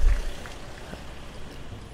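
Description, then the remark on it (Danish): A crowd at a peaceful demonstration in front of an association's office claps in a dense, steady patter of many hands, sounding diffuse outdoors, with no single clap standing out and no voices on top. “Ja, nu øh, bliver der klappet lidt.”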